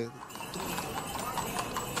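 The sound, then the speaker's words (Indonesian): Horse hooves clip-clop in a quick, steady rhythm, moderately loud, over a continuous murmuring background. “Pertama itu kedengaran kayak suara kuda mau”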